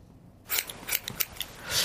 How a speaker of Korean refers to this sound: 요거 무슨 소리 같으세요? 요게요. 가위질 소리입니다. 예, 네, 가위질. 한번 더 들려드릴게요. 가위질 소리.